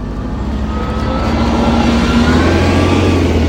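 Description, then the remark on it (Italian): A bus engine revs up and the bus pulls away, a steady low rumble growing louder with rising tonal whine over about three and a half seconds, no talking. “Ecco, scusate, sceso dall'autobus”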